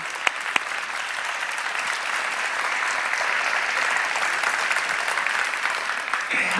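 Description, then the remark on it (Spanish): A crowd breaks into sustained applause for the Lord, a dense, steady wash of many hands clapping that holds at an even loudness for several seconds, with a few sharp individual claps standing out at the start. “Ante la inflación, dale un aplauso, Señor.”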